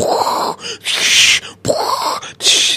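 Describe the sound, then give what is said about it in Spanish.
A singer, on stage at a band's concert, imitates a stormy wind with his voice in breathy whooshing and hissing blasts. The loud bursts alternate between lower moaning rushes and sharper hissing gusts over about three seconds, with no words. “así como ruidos de tormenta hacía …, y no sabíamos qué pasaría esta noche.”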